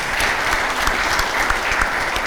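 Steady, dense applause from an audience, a continuous crackle of many hands clapping at an even loudness with no voices standing out, lasting a couple of seconds.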